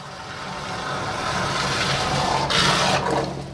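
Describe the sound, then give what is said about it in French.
A suction pipe pumping grease out of a sewer network makes a steady, loud suction roar with a deep, engine-like drone underneath, swelling into a brief rushing whoosh near the end. No one speaks. “Ce n'est pas les gouttières qui ronflent, c'est la pipe qui fait du bruit.”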